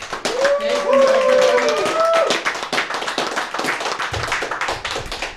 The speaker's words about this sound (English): So I think we should give an applause to the supporters to this point.